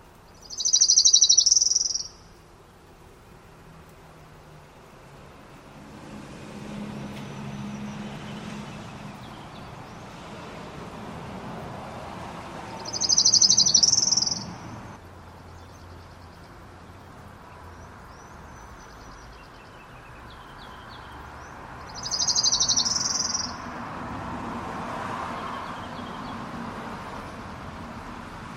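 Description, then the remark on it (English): An orange-crowned warbler sings a slow, buzzy trill of repeated notes three times, each burst about two seconds long, separated by long pauses over a low outdoor hum. “the orange crowned warbler there it has a repeated note kind of a trill actually as maybe a slow trill um, that is tends to decrease or increase in tone at the end so the pitch tends to change and the speed of the trill seems to change typically”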